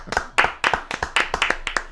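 A brief burst of applause: a handful of people clapping in quick, uneven sharp claps, fairly loud and steady for a couple of seconds with no talking over it.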